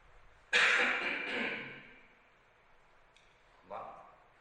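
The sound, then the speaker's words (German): A person coughs during allergy season: a long, harsh, rasping cough lasting over a second, then a pause and one shorter cough. No talking. “So, jetzt huste ich noch einmal ausführlich und dann hoffe ich, Sie sind es los.”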